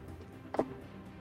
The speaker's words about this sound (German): Okay, ja, dann kann ich jetzt ja nochmal mit zwei W6 würfeln.